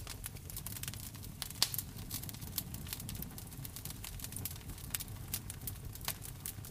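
Steady crackling of a fire in a fireplace, with frequent sharp pops and snaps over a low, warm rumble. The sound is continuous, with no voices.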